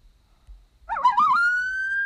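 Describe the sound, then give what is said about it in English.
A coyote howl: a single wavering, yipping cry that climbs and settles into a long, steady high note, fairly loud, with no talking. “That don't that even sound like a fucking wild coyote.”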